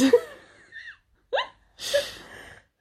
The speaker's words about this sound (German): Ich lache lautlos, ne? Ich atme einfach. Und ähm, atme dabei dann manchmal so nach Luft ringend, quietschend ein. Und. Wie eine Seerobbe. Genau, da klinge ich wie so eine sterbende Robbe.